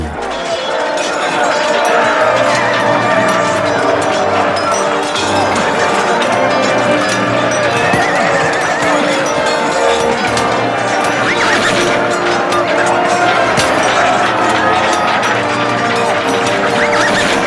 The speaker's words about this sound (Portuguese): cavalos refreavam, as espadas se chocavam.